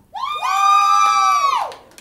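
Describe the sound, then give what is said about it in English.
A small group of live audience members scream out together in one loud, sustained shout that rises sharply, holds for over a second, then trails off, voting for the Harry Potter house Ravenclaw. “I'm gonna say them all, and we're all gonna scream out, okay?”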